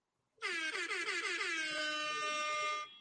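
A loud, brassy horn blares for about two and a half seconds, its pitch wobbling at first before settling into a steady, sustained tone, then cutting off. No voices.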